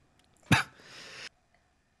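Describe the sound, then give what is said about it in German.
A man gives one sharp, forceful cough, trailing into a raspy, breathy exhale before quiet returns. No one speaks. “Jetzt hustet der hier.”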